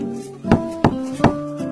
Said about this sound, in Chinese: 敲门，